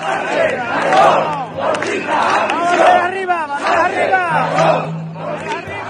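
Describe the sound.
A large crowd of protesters chants together outdoors in the centre of Seville, Spain, at a demonstration outside the Socialist party headquarters, many voices rising and falling in rhythmic, shouted phrases that repeat in waves, loud with a steady roar of group noise underneath.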